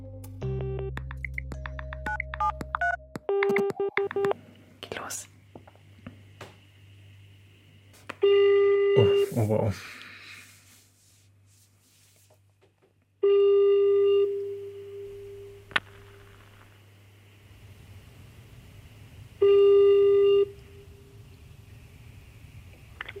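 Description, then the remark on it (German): A quick burst of smartphone keypad tones as a man calls a former school bully, followed by a steady, clear ringback tone repeating in long, evenly spaced pulses. A voice briefly murmurs near the start. “Der Anruf beim Mobber aus der Schulzeit”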